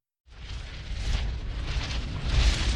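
A volcanic eruption on Martinique roars with a deep, continuous rumble like cannon fire reverberating from the summit down through the valleys, swelling in waves rather than separate blasts, loud, with a hissing, crackling layer on top and no voices.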